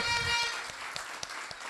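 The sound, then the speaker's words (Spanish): Audience applause at a seminar for first-time attendees: a dense wash of clapping with a voice briefly audible underneath at the start, thinning out into a few scattered, evenly spaced claps. “Un fuerte aplauso para los que vienen por primera vez a un seminario.”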